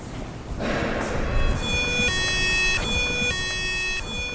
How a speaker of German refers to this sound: Und dann geht er als erstes Mal los, der Alarm.